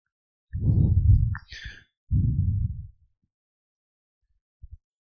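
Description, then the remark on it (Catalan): An Oakham Ales Black Magic chocolate porter beer is poured into a glass, forming a foamy head: two muffled, gurgling glugs with a short fizzy hiss between them, then a faint clink near the end. “Eh, és una birra de Oakham Ales, una Chocolate Porter, que es yeah. diu Black Magic, i, bueno, anem a posar-la, aviam que, de què va la història.”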